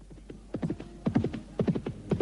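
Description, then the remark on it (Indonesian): A horse's hooves clip-clop in a steady trotting rhythm as a rider travels on horseback, hoofbeats falling in quick clustered groups, moderately loud, with no voices present. “Berhenti sebentar. Iya, hentikan kuda.”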